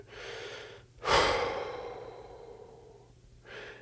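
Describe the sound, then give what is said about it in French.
Slow, deep breaths used as an anchor during a short meditation: a long airy inhale, then a drawn-out exhale that fades over a couple of seconds before the next breath begins. No talking. “et je me sers vraiment de ma respiration comme ancrage.”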